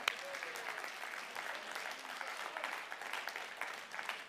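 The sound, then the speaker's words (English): An audience claps steadily in praise of God, a dense wash of many hands at a fairly even level throughout, with a few faint voices mixed in under the applause. “Let's give a hand clap to the God who can.”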